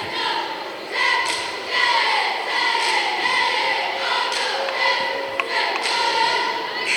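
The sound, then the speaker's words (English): A loud, sustained roar from a packed crowd at a basketball game during a timeout with 18.4 seconds left and Forest Hills leading 72-70, constant cheering and noise with scattered thumps and thin squeaky tones cutting through. “Raucous crowd tonight.”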